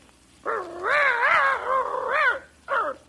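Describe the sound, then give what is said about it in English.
A person imitates a dog with a long, wavering, growly vocal sound lasting about two seconds, then a shorter burst after a brief pause. It is fairly loud, with no talking. “you know, I think we should have got a real dog for this part.”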